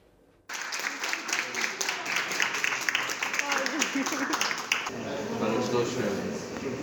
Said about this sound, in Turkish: Hani biz sağlıkçıları alkışlıyoruz ya. Onlar da her hastayı taburcu ettiklerinde alkış yapıyorlar.